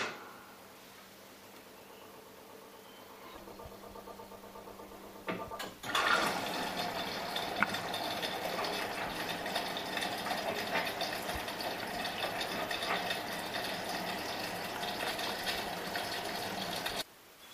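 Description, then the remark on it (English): A front-loading washing machine with a glass door turns its drum with laundry, about one meter away: a low motor hum for a few seconds, then a loud, steady rush of churning, sloshing water that continues to the end. No one speaks. “That's the sound when the tram is turning with the laundry in it.”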